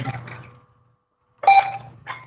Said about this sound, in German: ups, du kriegst, glaube ich, gerade einen Telefonanruf oder so.